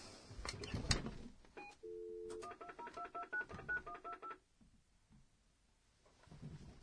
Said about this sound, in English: I have your phone number. I'm gonna hit redial on it in just a sec.